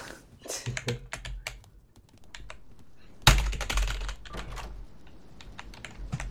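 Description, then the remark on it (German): Rapid, loud clicking of computer keyboard keys in irregular bursts, with a sharp louder clatter midway and steady background noise underneath. “Wenn mir das Kackvieh jetzt nochmal in die Fresse fliegt, während ich volle Lautstärke anhab, weil du da zu laut rumklickerst.”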